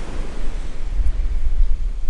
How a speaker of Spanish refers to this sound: en la Costa Brava, entre Barcelona y Francia. Estoy aquí eh, eh, vine a visitar un gran amigo mío eh, en un lugar llamado San Feliu de Gisholz, aquí en, en, Cataluña, y estoy frente al mar